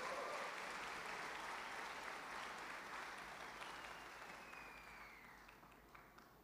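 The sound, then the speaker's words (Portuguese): A large crowd at a religious sermon applauds steadily in the name of Jesus, dense clapping filling the space with some cheering mixed in, the ovation holding strong before gradually fading toward the end. “Dá um glória, um aplauso, um grito, alguma coisa aí em nome de Jesus.”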